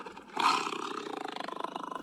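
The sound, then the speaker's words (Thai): A tiger lets out a loud roar that bursts in suddenly, then trails into a rough, rapidly pulsing growl before fading out. No voices accompany it. “แล้วก็ถ้าเป็นในต่างประเทศเนี่ย ป่าโกงกลางหลายแห่งมีเสือโคร่งนะครับ”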